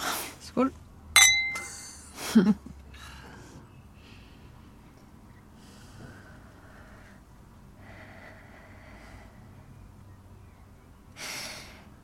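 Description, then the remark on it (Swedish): Wine glasses clink together in a toast, a few bright ringing chimes in quick succession at the start, followed by quiet breaths, soft murmurs and low room noise. “Mera vin? Oh, ja, tack, tack. Skål.”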